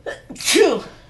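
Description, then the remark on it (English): A single loud sneeze with a quick inhaled buildup and a sharp, breathy burst, heard on its own without talking. “bless you.”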